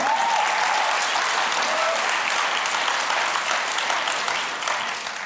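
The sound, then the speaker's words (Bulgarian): A church audience gives half-hearted applause during a sermon, a steady, even patter of clapping hands with no voices, holding for about five seconds before easing off slightly at the end. “Виж колко куцо пляскат.”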